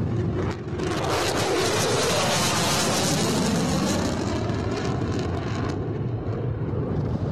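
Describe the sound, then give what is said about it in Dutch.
A fighter jet roars with afterburners on during a steep 'Viking takeoff', a dense, crackling, full-band thunder that stays loud and steady for the whole stretch as it climbs fast, almost straight up, with no voices over it. “Let op het geluid van de naverbrander.”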